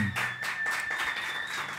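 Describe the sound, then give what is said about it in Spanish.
An audience applauds in a dense, steady wash of clapping that holds at an even level throughout, with a thin, sustained high-pitched tone running underneath. “Otro aplauso, por favor, porque sí.”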